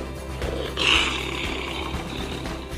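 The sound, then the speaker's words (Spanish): A lion's deep, rumbling roar swells up loud, holding steady for a couple of seconds with a rough, gravelly texture and no voices around it. “león come carne.”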